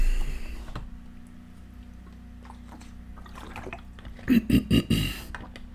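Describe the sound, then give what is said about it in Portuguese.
A speaker takes a drink of water while talking, with a few soft handling noises and then three or four quick gulps near the end, over a low steady hum. “Um, e pronto, para já agora um bocado de água.”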